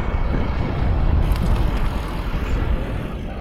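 A car rolls by, loud, its booming, bass-heavy music and engine rumble filling the whole moment with a steady low throb; no one speaks.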